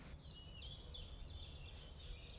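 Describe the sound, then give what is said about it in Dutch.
Birds chirp and whistle steadily in the open outdoor space of the Villa Borghese park in Rome on a sunny, mild spring day, their high calls repeating over a low rumble of background noise. “De zon schijnt, de temperatuur is zacht vogels fluiten en de bloemen bloeien.”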